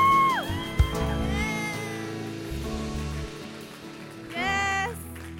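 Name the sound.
audience applause and cheering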